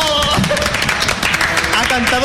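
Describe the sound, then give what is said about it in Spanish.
A burst of loud, steady applause from a crowd, dense clapping throughout with voices cheering and calling out over it. “Un fuerte aplauso”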